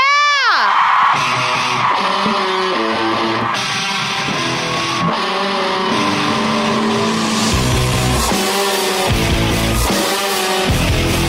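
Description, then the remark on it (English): A crowd cheers and applauds loudly and steadily throughout as a Grammy Award-winning band is introduced, with shouts and high whoops layered over a dense, roaring wash of noise; a sharp rising and falling shriek opens it. “please, please give a huge round of applause for one of my favorite bands, and I'm sure one of yours as well.”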